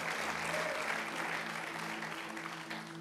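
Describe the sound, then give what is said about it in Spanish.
Steady applause from a church audience during a sermon fills the whole stretch, a dense, even wash of clapping with no pauses, joined by a low sustained hum beneath it. “Si Dios empezó algo en ti, si te sometes y crees, o alguien aplauda si lo está entendiendo, Dios lo va a perfeccionar.”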